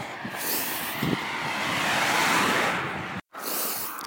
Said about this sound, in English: All right, I'm back. I don't know if y'all could tell, but uh, running into the wind with the traffic was just a little much for me.